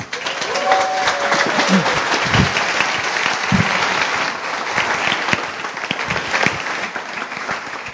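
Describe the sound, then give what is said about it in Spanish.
Steady applause from an audience fills the whole stretch, a dense crackle of many hands clapping at once, fairly loud, with a few faint voices underneath. “Entonces les pido un aplauso”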